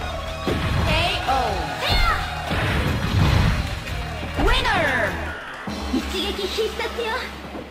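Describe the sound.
Xbox video game combat sounds as Bill Gates's fighter is knocked to the ground: several loud crashing impacts and sweeping effects, busy, while a voice talks over them.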